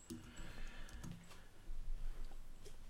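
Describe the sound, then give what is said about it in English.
A few sharp, quiet clicks from a computer mouse tap out at irregular intervals over a low background hum, with no talking. “Um, I'm I'm hearing you doing a lot more clicking than talking. By the way. Oh, sorry. Oh, my mouse is so damn loud.”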